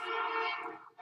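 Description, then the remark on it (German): American fire engine sirens blare loud and steady in the background of a quiet retirement neighborhood, with a harsh, buzzy tone, briefly dropping off near the end before resuming. No one speaks over it. “Wahrscheinlich schön die amerikanischen Sirenen, die jetzt gerade im Hintergrund laufen.”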